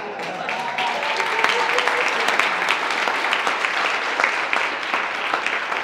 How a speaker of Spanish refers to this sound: ¿Me merezco un aplauso o no?